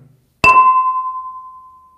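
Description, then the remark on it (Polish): A glass tumbler is struck once like a gong, giving a sharp clink followed by a clear, steady ringing tone that slowly fades over more than a second. “mam narzędzie, które spróbuję, którym spróbuję e, ładne brzmienie z tej szklanicy wydobyć i może to brzmienie będzie wystarczająco ładne, żeby e, oczyścić atmosferę”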